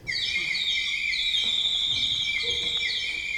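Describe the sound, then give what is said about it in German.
A bright, continuous warbling trill of high whistling tones, like a chorus of chirping birds, from an organ bird stop: a single pipe standing upside down in a container of water, with air blown into the water. Steady and fairly loud with no talking. “Und wenn man das anmacht, dann bläst die Luft in das Wasser und gibt dann diesen Effekt.”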